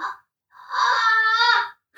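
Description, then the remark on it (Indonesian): A child talking in their sleep lets out a drawn-out, pained moan lasting about a second, fairly loud, with short whimpery sounds just before and after it. “oh kayaknya dia kesakitan bu enggak dia tuh kayak mimpi lagi deh”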